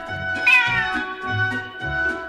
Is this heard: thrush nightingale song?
no